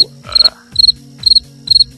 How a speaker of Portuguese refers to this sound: o Grilo não, cara, o Grilo não.